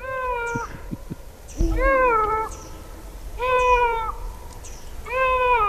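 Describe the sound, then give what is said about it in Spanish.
A female cat meows insistently at night, four drawn-out, wavering cries spaced about a second apart, loud, with no one speaking. “había que hacer un monumento a esta gata.”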